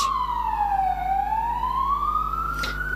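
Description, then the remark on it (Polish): An ambulance siren wails outside, its tone sliding down then slowly rising again, loud and steady for the whole moment with no one talking over it. “Szpital mamy za rogiem, słuchajcie.”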